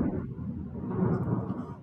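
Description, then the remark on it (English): A deep, rolling rumble of thunder from a massive thunderstorm on the equator in Ecuador fills the whole moment, steady and heavy with a slight swell near the end, with no voices over it. “I'm on the equator here in Ecuador, and there's a massive thunderstorm.”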